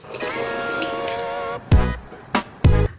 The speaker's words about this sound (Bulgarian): Но в момента пия вода